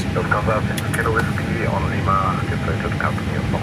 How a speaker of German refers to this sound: Jetzt hat er gesagt, dass die Triebwerke frei sind. Engine Start. Jetzt geht's los mit dem Triebwerk Nummer 2. Engine 2 Start.